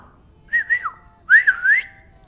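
A person on a hillside whistles two short signal phrases to a sheepdog named Patch to gather grazing sheep. Each is a bright, fairly loud run of sliding and warbling notes, the second longer and rising at its end.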